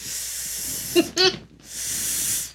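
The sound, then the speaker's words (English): An Ello water bottle from Target hisses: a steady airy hiss, a couple of short squeaky pops, a brief pause, then another long hiss. No one speaks. “My water bottle sound. makes more of like a”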